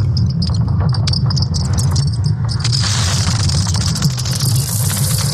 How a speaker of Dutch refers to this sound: Is het misschien het knetterende brein van Donald Trump? Zou het zijn spijsvertering kunnen zijn? Allemaal fout. Het is het magnetisch veld van de aarde. Inderdaad, het is wat uw kompas hoort.